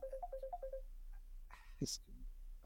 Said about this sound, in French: pardon, chef. Euh, le téléphone.